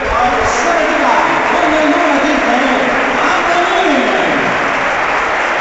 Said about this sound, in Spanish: Se marcha Antoñín del terreno de juego. Escuchamos a la afición ahí aplaudir al de la palmilla de la palmilla a la Trinidad.